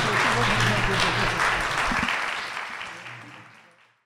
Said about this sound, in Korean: 저렇게 박수로 변호사님하고 두 분 이렇게 많이 이렇게 해주셔서 감사했습니다.